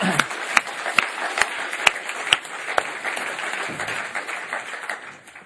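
A church audience breaks into applause for a pastor, a dense wash of many hands clapping with a few sharper, louder claps standing out, steady for several seconds before thinning slightly at the end.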